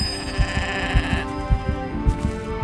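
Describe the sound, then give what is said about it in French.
A herd of goats bleats in a dense, overlapping chorus, several animals calling at once with wavering, nasal cries and a pulsing low rhythm throughout, steady with no speech. “Mais non, les chèvres sont bien réelles”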